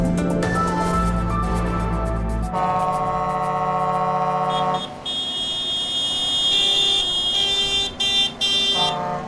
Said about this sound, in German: Das wird Ihnen bekannt vorkommen. Das ist das Geräusch der vergangenen Tage. Sie waren nicht zu überhören, die Hupen und Tröten der Traktoren.